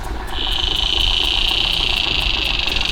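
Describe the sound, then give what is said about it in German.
A saddle bush-cricket stridulates in a steady, high-pitched buzz that sets in after a moment and holds continuously, with a faint regular ticking pulse above it, amid a chorus of birds and insects, set against a low rumbling outdoor background. “Das heißt einmal, hier haben wir jetzt gerade das Solo der Sattelschrecke und das Konzert der Vögel und Insekten.”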